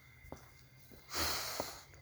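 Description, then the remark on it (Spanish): A person breathes out through the nose in one airy, rushing exhale that swells and fades over about half a second, fairly soft, with a few faint clicks around it. “Mientras estás haciendo todo eso, respiras por la nariz a que tu cerebro, coño, diga, verga, finalmente, vale, ah, coño, oxígeno, huevón, verga, coño, gracias, vale, ah, coño, por fin está respirando por la nariz este huevón”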